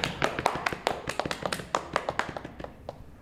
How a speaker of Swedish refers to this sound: Applåderna stormar!